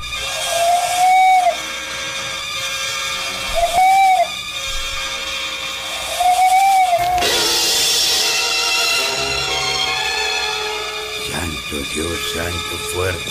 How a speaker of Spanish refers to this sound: Ahí está el pájaro momo. Es la tercera vez que canta. Y ahora lo oí que más sopla que canta.